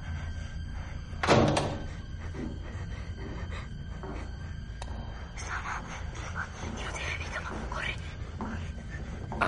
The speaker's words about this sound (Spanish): Se abre la puerta.